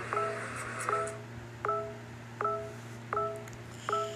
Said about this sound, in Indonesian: Apaan sih notifikasi siapaan sih bawa banget dari tadi?